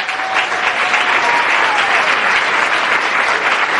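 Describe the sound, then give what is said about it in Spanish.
An audience of people in the Amway business applauds themselves for being there, steadily throughout, a dense, even wash of many hands clapping at a loud, sustained level with no voices standing out. “Así que quiero que se den un aplauso a ustedes por estar acá.”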